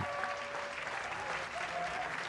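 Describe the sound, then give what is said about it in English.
Thousands of Israelite soldiers cheer and clap for their new king in a dense, steady roar that fills the whole moment, with a few faint sustained high trumpet tones threading through the noise. “Minutes later, after the top officers spread the news down the chain of command, the sound of trumpets pierced the air, and thousands of Israelite soldiers cheered the new king.”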